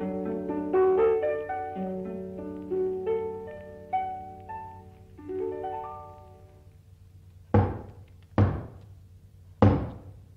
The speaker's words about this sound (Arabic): خبطة عالي